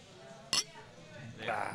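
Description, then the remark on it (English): A single bright clink of glasses touching in a toast, sharp and ringing briefly, with faint voices and room murmur around it. “cheers.”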